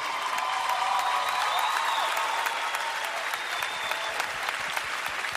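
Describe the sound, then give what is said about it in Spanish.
An audience applauds steadily for several seconds, a dense wash of many hands clapping at an even, fairly loud level with no voices rising above it. “están aplaudiendo la necesidad.”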